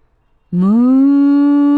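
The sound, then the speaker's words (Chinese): A voice imitates a cow's moo: one long, loud, steady tone that starts abruptly after a half-second of silence, rises slightly in pitch, then holds to the end. “哎， 牛儿来了，马儿来了，一看到阿丽的屁股，就笑了。”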